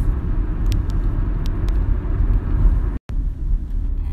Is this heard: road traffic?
yes